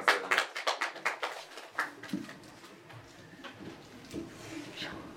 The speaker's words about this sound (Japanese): 拍手でお迎えくださいませ